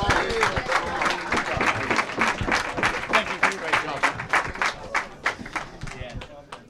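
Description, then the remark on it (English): An audience breaks into steady applause for two gentlemen, many hands clapping in a dense, continuous patter that stays fairly loud for several seconds before thinning slightly at the end, with some voices mixed in. “round of applause for these two fine gentlemen.”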